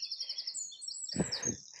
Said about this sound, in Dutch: De vogeltjes zijn wakker.